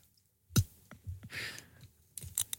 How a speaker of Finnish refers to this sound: sieltä lähtee aukeamaan. Rutisee.